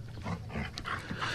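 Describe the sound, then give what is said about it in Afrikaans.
A small dog with a shiny black coat, Russie, yapping in quick, repeated sharp bursts, moderately loud, with no one talking. “Hy is klein en hy het 'n blink swart pels. Hy kef kef aan mekaar en 'n happie aan die Engels as jy nie oppas nie en wanneer jy dit die minste verwag.”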